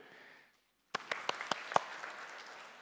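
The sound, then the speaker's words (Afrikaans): A group of men in a church clap their hands for the women after a brief pause: a handful of sharp, distinct claps at first, then a rapid, overlapping patter of applause with no talking. “Mans gee vir hulle 'n hande klap toe.”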